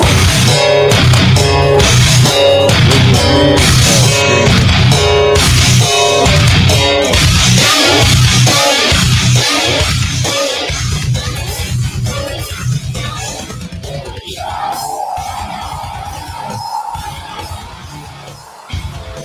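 Harsh, distorted screaming vocals blast over loud heavy music, dense and raw, then the intensity drops away into a noisier, crowd-like wash for the final seconds.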